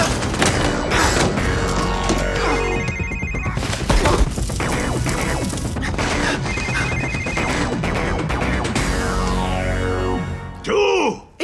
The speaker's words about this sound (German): Was zur Hölle war das? Du hast dein Handy nicht auf lautlos gestellt.